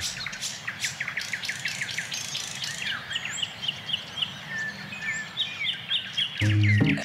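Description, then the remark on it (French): Several birds sing and chirp together, a busy overlapping chorus of bright trills and whistles over a low background rumble, steady throughout. “Et puis au bout de quelques semaines, quand on commença à réentendre le chant des oiseaux, la question cessa presque naturellement de se poser.”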